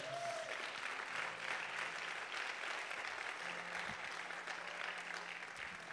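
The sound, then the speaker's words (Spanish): Sustained applause from a church audience giving applause to the Lord, a dense, steady wash of many hands clapping for about six seconds, with faint tonal hum underneath and no clear speech. “Alguien que lo reciba y le dé un aplauso al Señor.”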